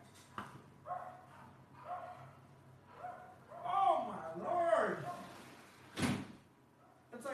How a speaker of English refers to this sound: There's a dog. I don't know. Hopefully you can't listen to that dog as much because we got the directional mic.